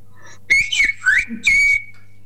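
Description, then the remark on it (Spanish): A single word, the Spanish word elefante (elephant), whistled as speech: a clear whistle in about four syllable-like bursts, gliding up and down in pitch, ending on a longer held tone, with no talking. “Voy a silbar elefante.”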